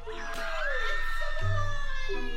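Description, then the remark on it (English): A loud burst of excited crowd cheering at a gender reveal party, with high-pitched shrieks and squeals from several voices rising together and holding steady for a couple of seconds. “People love those gender reveal parties.”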